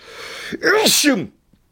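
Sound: sneeze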